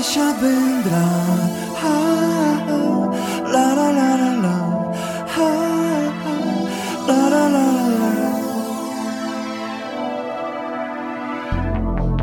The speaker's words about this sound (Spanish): Vamos a escuchar algo de música, luego sí seguimos con más noticias.